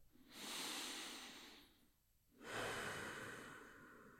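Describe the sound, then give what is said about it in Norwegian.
Slow, deliberate breathing of a person with eyes closed, focusing on the breath: one long, airy breath, a brief pause, then another drawn-out breath. The breaths are soft and breathy, and no one speaks. “Nå tar jeg 10-15 minutter hvor jeg da lukker øynene og fokuserer på pusten min.”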